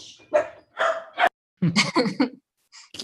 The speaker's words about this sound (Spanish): ¿Quién, tiene un perro ladrando? Yo tengo un perro ladrando que trae un pinche desmadre.